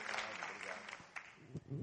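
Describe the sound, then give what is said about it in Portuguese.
An audience at the Igreja Batista Central de Belo Horizonte applauds to welcome a visiting couple, a dense, steady patter of many clapping hands that carries through the whole stretch, with a voice briefly breaking through near the end. “Nós queremos saudá-los nesta noite com uma salva de palmas.”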